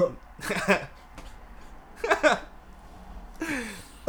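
Three separate bouts of sputtering, strained coughing spaced a second or so apart, close to the mic and moderately loud, with raspy throat-clearing sounds mixed in and no clear speech.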